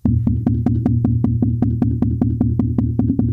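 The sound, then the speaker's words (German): A normal pulse followed by sudden racing of the heart: a rapid, steady heartbeat races along at about five sharp beats per second over a constant low rumble, loud, with no voices. “Dann ein sehr langsamer Puls, plötzliches Herzrasen wäre so, normal, und der Puls zuerst und dann plötzliches Herzrasen.”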